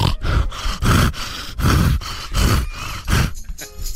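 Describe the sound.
A voice imitates a woman's 'asthmatic orgasm' as heavy, wheezy asthmatic breathing: about six loud, rasping gasps in a steady rhythm, each breath broad and noisy with low grunting tones, trailing off at the end.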